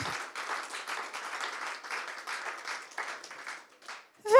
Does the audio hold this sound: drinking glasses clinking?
no